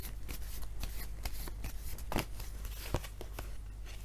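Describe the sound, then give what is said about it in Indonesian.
Tarot cards are shuffled for a Gemini love reading in a steady run of quick, crisp riffles and flicks, with a couple of sharper slaps standing out, over a low constant hum and no voices. “Kartu untuk percintaannya Gemini”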